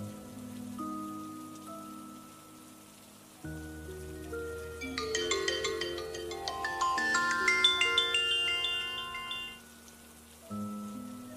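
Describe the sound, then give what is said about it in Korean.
A mobile phone ringtone, ringing several times for a while: a bright, tinkling melody plays in repeated bursts over a steady, sustained musical drone, growing louder and busier in the middle before fading back to the background tones. “한동안 벨소리가 여러 차례 울렸었고 억지로 눈을 뜨게 되었다.”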